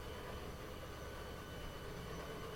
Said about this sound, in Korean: 그런데 갑자기 기계음 소리와 함께 승강기가 움직이기 시작했다.